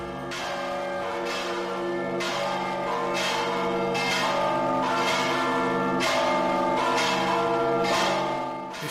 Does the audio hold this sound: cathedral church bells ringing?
yes